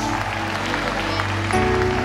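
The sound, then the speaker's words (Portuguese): An audience applauds steadily for about two seconds, applauding and saying glory to God, a dense, even wash of clapping over sustained organ-like music that shifts chord near the end. “Ei, alguém pode aplaudir e dizer glória a Deus!”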